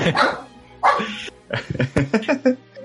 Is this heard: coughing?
no